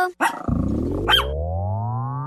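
A dog barks sharply once, then lets out a long, loud, rumbling growl that rises steadily in pitch, with no talking over it.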